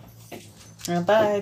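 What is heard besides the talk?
small dog whimpering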